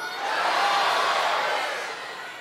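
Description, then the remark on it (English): An audience shouts out together on a count of three, each naming the one they love to watch, in one loud, blended roar of overlapping voices, swelling quickly and then tapering off after a couple of seconds, with no single word standing out. “So, on the count of three, I want you to kind of loud and proud yell out the one you love to watch as a person or a family.”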